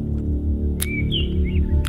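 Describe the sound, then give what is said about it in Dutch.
A few short, high bird chirps and tweets sound over a steady low background hum, with no one speaking. “Ach, ja, daar krijg je geen hartaanval meer met die achtergrondgeluiden. Vogeltjes en zo.”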